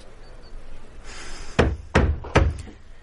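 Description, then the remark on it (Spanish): A door sounds with three sharp, loud wooden knocks or thuds at uneven intervals, preceded by a soft rustle, with no voices, as a maid opens the door and Vázquez enters followed by the guard. “La criada abre y Vázquez entra seguido de la guardia.”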